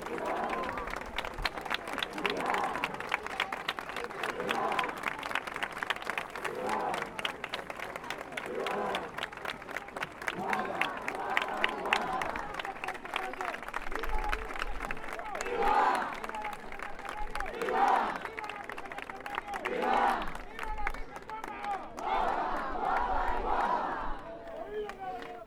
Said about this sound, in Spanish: un ambiente puramente de romería que estamos escuchando y ahí eh, con esa grabación y ese trabajo de campo de todos los que os dedicáis a la recuperación del patrimonio, en este caso eh, oral.